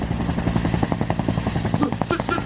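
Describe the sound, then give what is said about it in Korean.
A helicopter's deep rumble with rapid, steady rotor thumps, fairly loud, holding at a constant level with no voices, as the helicopter appears high in the sky and approaches a construction site. “하늘에서 우르릉 소리가 들리기 시작했다. 먼 상공에 직승기, 즉 헬기 동체가 나타난 것이 보였다.”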